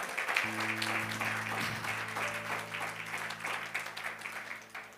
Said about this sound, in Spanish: Yo, aleluya, dale fuerte el aplauso, por favor.